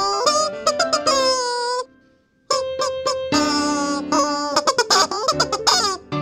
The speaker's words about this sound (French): Et eh ouais, le solo, c'est du poulet. Ce fameux poulet en plastique hein, qu'on continue à voir beaucoup sur l'internouille, mais rarement interprété avec autant de sensibilité que par Lord Vineteiro.